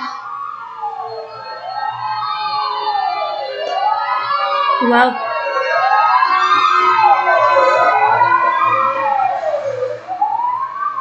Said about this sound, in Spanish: Estaban pasando ambulancias.